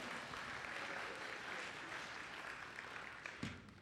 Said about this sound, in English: All right, hand of applause for these strapping men.